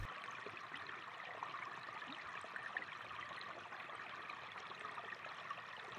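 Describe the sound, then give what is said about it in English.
Steady rushing of river water flows continuously, a broad even wash with small bubbling trickles on top, moderately loud, with no voices. “Sit by the river, listen to the water, to the life and energy that surrounds you.”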